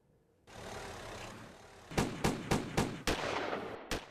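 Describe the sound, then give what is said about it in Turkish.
A quick burst of about six sharp gunshots cracks out in rapid succession over a steady street rumble, loud, with a final shot after a brief pause: the attack in Küçükçekmece, where shots were fired at an association building where AK Party mayoral candidate Aziz Yeniay was campaigning. “Arda arda kurşun sesleri, sokak ortasında yaşanan can pazarı.”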